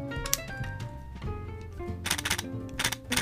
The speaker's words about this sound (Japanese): Z50 と一緒でやったですよとか、Z72 とか、まあその世代と一緒のシャッター音でしたよと。これは Z72 ですね。